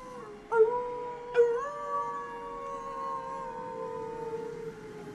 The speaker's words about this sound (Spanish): A esta llamada contestaron a lo lejos los aullidos de los lobos. Pocos minutos después había acudido una gran manada.